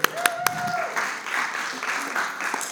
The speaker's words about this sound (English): You can clap.